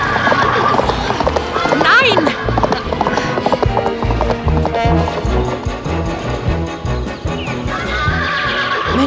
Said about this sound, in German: Das Pferd geht durch.